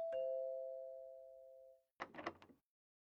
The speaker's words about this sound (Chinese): 听到门铃声，季云端赶紧跑了出来，看到站在门外的殷秀华，脸上勾起一抹笑，将他高兴的迎进屋里。